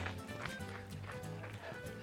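Quick, steady footfalls of someone running in place with short steps during a 30-second running exercise, a rapid even patter of light thuds repeating several times a second over a low humming background.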